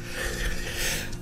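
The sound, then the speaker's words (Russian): A single sneeze, a breathy, hissing burst that lingers for about a second with no talking over it. “Ах, будьте здоровы”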